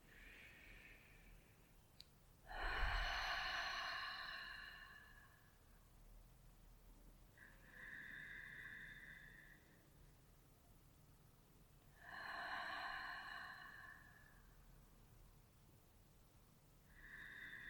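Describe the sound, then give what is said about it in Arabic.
Slow, deep breaths taken during a guided breathing exercise, inhales and exhales alternating in long airy whooshes, about five in all with short quiet pauses between them. “يلا هسيبكم بالرواقه اللي احنا فيها دي ناخد نفسين حلوين ثلاث أنفاس”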